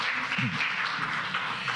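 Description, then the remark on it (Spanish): An audience at a Christian church service applauds the King of Glory steadily in a dense, continuous wash of clapping that fills the space for the full length, moderately loud, with a faint voice briefly underneath. “Denle un fuerte aplauso al Rey de la Gloria.”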